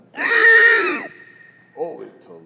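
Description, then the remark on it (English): A person lets out a loud, shrill shriek lasting about a second, imitating the noise of demons leaving, followed after a short pause by a brief murmur of talk. “How was that for a shriek? That was my best shriek.”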